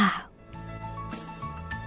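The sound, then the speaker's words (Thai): A single short, rough throat clearing bursts out at the very start from the empty back seat of a car, then gives way to a steady low droning hum of the car for the rest of the moment. “และก็ขออย่าให้ใช่เสียงกระแอมทางที่นั่งตอนหลังทำให้วิสูตรเร่งความเร็วขึ้นไปอีก”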